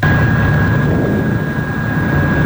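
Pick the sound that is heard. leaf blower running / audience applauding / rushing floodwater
leaf blower running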